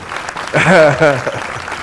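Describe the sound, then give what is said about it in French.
A short burst of canned applause played as a sound effect on radio, a steady wash of clapping noise lasting under two seconds, with a brief voiced cry or cheer rising over it midway. “Bonne main d'applaudissements.”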